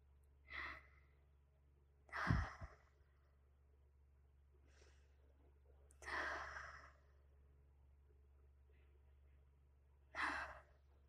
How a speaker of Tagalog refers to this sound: Nanginginig ang kalamnan. Ngunit, pinipilit niyang tumayo. Dahan-dahang paghinga.